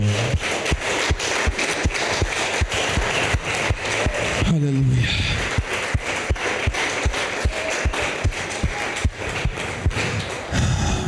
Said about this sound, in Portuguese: Aplauda o Senhor.